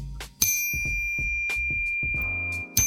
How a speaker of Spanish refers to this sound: Que tengo una ah, campanita, mira.